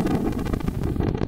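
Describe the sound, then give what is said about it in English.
A deep, rolling rumble of simulated thunder as heard on Earth, loud and continuous with a heavy low-end roar and slight crackling flutter, heard on its own without any voices. “So here's the sound of thunder on Earth.”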